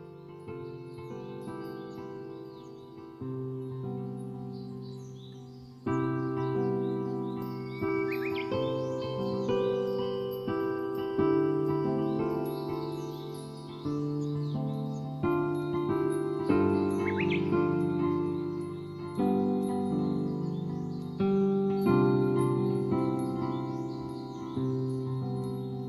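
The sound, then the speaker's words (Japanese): Gentle computer-generated ambient music plays in the first-floor entrance of the Gran Park building on a March morning. Plucked guitar notes, which play when the outdoor temperature is 15–20°C, ring over soft sustained tones and occasional bird-like chirps. It stays steady and calm throughout, with no talking. “今聞いていただいたが分かる通り、えうん、今ギターの音であのそうですね、はい、流れてました。”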